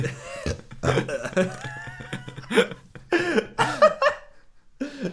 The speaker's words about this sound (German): Was war äh. das? Ich habe gerade gerülpst und gelacht gleichzeitig. Das war so ein, richtig, das war so ein richtiges Staccato-Ding.